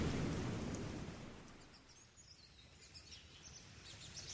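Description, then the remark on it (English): A thunderstorm: a low roll of thunder rumbles and fades over the first couple of seconds, leaving a steady hiss of rain with faint chirps high above, all fairly quiet. “Father, please stop this storm, she says.”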